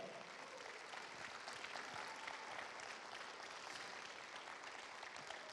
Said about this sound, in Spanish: Si le dan un aplauso al Señor, hazlo fuerte.